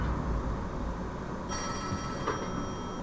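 A telephone next door starts ringing halfway through as a caller redials, one bright, buzzy electronic ring burst over a steady low background rumble, with no talking.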